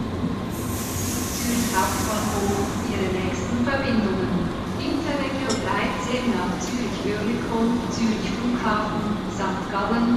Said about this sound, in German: Ankunft in Zürich auf Gleis 8. Es ist kurz nach 10. Der Zug hat ungefähr eine Stunde Verspätung.